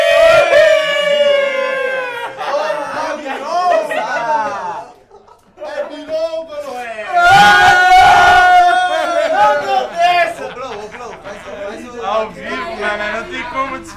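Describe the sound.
A crowd shouts and cheers loudly, many overlapping voices yelling in bursts, with a brief lull in the middle before the shouting surges back even stronger.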